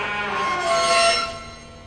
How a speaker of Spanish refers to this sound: Los goznes oxidados chirrían al abrirse la puerta.